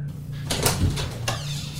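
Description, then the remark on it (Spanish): A door is kicked hard with great force, as if someone is trying to open it, with a few heavy thuds and rattles, the strongest blows close together and another knock shortly after, over a low steady hum. “escuchábamos una puerta que era pateada con mucha fuerza, como, como queriendo abrirla”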